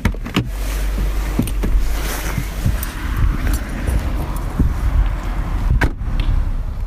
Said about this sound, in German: Mit dem Auto hält Hermann Meyerhofer vom Bergbauern- und Gotikmuseum in Leogang vor der Kapelle.